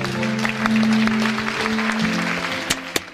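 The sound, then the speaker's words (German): An audience in Cambodia claps steadily for the boys of a Cambodian circus in a dense, continuous wash of applause, with a few sharper, louder claps standing out near the end and a faint low tonal hum underneath. “Applaus für die Jungs vom kambodschanischen Zirkus.”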